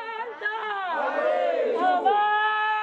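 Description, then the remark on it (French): A small group of protesters on the steps of the Constitutional Court in Johannesburg, South Africa, denouncing government inaction, chants together in sustained, rising and falling tones, fairly loud, with the sound of a modest outdoor crowd behind it. “Sur les marches de la Cour constitutionnelle à Johannesburg, un petit groupe de manifestants dénonce l'inaction des gouvernements sud-africains qui, selon lui, ont empêché le processus de vérité et de réconciliation d'aller à son terme.”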